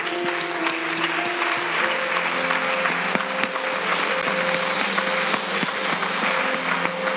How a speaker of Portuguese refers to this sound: Aplauda o Senhor mais uma vez.